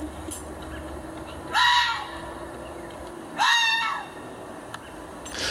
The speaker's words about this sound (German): Und tatsächlich, ich habe ein Live-Video von einem Fuchs gefunden. Und so, liebe Hörer, die es vielleicht auch nicht wussten, so wie ich, so klingt der Fuchs.